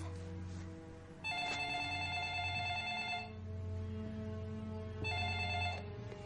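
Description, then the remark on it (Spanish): A telephone rings at Dr. Bennet Omalu's home in two long bursts of a bright, steady electronic tone with a short pause between them, before Omalu picks it up; loud, over a low background hum with no one speaking. “Omalu coge el teléfono.”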